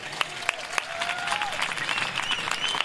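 A short burst of applause from a small group, encouraging a man to pick up a guitar and sing, steady clapping with a few sharper, louder claps standing out at the start, and a faint whistle-like tone threading through.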